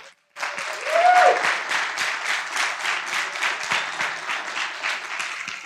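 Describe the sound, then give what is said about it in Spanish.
An audience breaks into sustained applause for people listening in other countries, a dense wash of many hands clapping at a steady level for several seconds, with a brief whistle-like tone near the start. “Por favor, un aplauso para todos ellos.”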